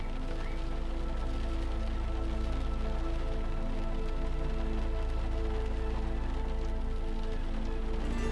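Gentle rain falls steadily with a soft, continuous patter, joined by a low, sustained tonal drone underneath. No one speaks, and the sound stays even from start to finish.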